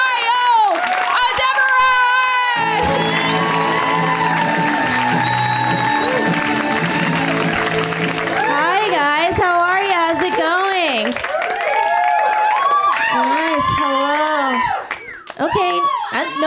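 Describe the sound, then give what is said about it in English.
A comedy show audience bursts into sustained, loud applause mixed with whooping and cheering voices, welcoming a comic on their first time on the show, steady for most of the stretch before trailing off near the end. “We give them a big, warm welcome round of applause, right?”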